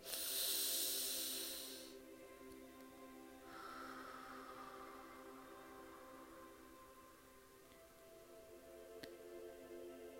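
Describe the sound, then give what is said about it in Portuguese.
A slow breath cycle with no talking during a guided breathing exercise: a sharp hissing inhale through the nose, then a longer, softer airy exhale through the mouth, over a steady low background hum. “Fecha os olhos, relaxa os braços, respira pelo nariz, quer dizer, inspira pelo nariz, expira pela boca, vai trazendo o estado de presença durante toda a respiração.”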